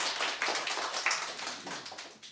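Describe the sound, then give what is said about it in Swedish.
Steady applause from a crowd welcoming a performer, a dense wash of many hands clapping at once, fairly loud and continuous with no voices over it. “Stor applåd.”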